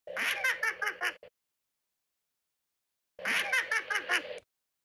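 The Yoda laugh sound effect from Star Wars: a short, high-pitched cartoonish giggle in a character voice, heard in two identical bursts of rapid chuckles separated by about two seconds of silence, clear.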